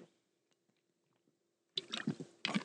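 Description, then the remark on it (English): A short, near-silent pause with faint clicks, then loud wet sounds of someone taking a sip of water and swallowing, in two quick bursts. “Um, hold on, let me get a drink of water.”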